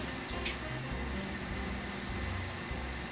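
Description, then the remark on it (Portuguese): A neighbour's car engine rumbles outside, a steady low hum with faint shifting tones that holds for the whole few seconds, with no talking over it. “É o carro do maluco aqui do brother.”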